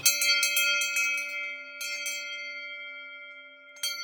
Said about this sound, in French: Nous, à Nouglous, c'est les cloches qui nous plaisent le plus, c'est des cloches Aubertino. Donc ça, c'est une fonderie qui est dans le Doubs. C'est une cloche euh, ronde, on va dire euh, en bronze, qui fait un son très clair et très perçant.